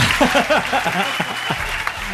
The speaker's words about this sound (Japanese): ということで101回目に突入しましたはい、はい、えー、拍手がここで出るのかな